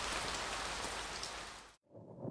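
Steady rain pours down in a dense, hissing wash, cuts out abruptly for a split second, then resumes more softly before swelling again. No voices.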